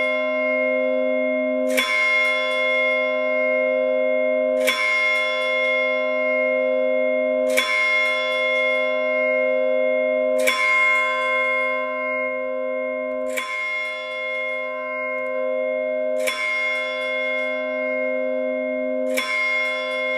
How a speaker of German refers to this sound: Die Kirchenuhr, die ich dir jetzt vorspiele, schlägt zur vollen Stunde. Zu welcher Uhrzeit schlägt die Uhr? Zähle mit.